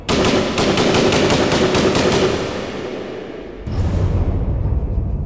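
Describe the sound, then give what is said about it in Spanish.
A burst of automatic gunfire from two machine guns: about a dozen loud, sharp shots fired in quick, even succession, then a dense rumbling noise that lingers after the shooting stops. “Pero la última ráfaga se queda todo en silencio.”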